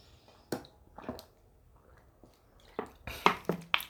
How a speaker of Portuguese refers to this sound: Pausa para água porque deu sede.